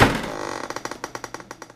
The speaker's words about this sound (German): Huck hat uns bis zur Kajüte begleitet, aber statt zu klopfen, stieß er die schwere Holztür auf.